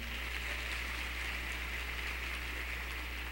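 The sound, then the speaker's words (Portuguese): A crowd at a live ministry event claps steadily to welcome a guest speaker, a dense, even wash of many hands that holds at the same level for the whole few seconds, with no voices over it. “Quero que você receba ele com a salva de palmas.”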